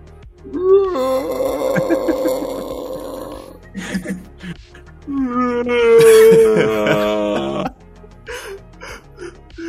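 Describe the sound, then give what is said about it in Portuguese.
A man demonstrates a yell meant to scare off brown bears in the forests of Canada: two long, loud, guttural yells, each lasting about three seconds with a brief pause between, the second slightly higher and more strained, like a deep bellowing roar. “Olha Grito da masculinidade aí para pra repelir os ursos pardos da floresta no Canadá.”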